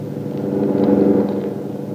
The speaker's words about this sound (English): Here comes a police car.